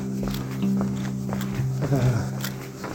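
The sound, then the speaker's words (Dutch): Footsteps walking into Oosterbeekstraat at around 11 pm at a steady, unhurried pace, over a low constant hum and a faint murmur of voices. “Ik loop de Oosterbeekstraat in”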